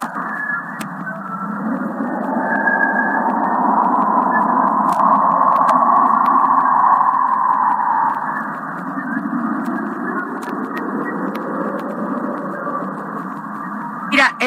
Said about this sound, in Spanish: también conocida como el Águila, ubicada en el Messier 16, a 7000 años luz, y el telescopio espacial Hubble captó un código binario que traducido a sonido, esto es lo que nos da.